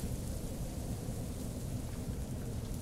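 A soft, steady storm wind rumbles low with an intermittent patter of rain mixed in, a constant ambient wash with no voices and no sharp events.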